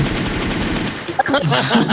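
A loud, rapid volley of gunshot sound effects rattles in quick succession like automatic fire, then breaks off into scattered tonal sounds and a faint voice.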